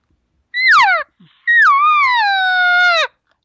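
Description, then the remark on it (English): Two imitated cow elk calls: a short, falling nasal mew, then a longer whiny one that holds steady before dropping off at the end. No talking. “And then once you give that cow sound, now you've given cow sound after the bull went through his little ceremony, his his his courting process.”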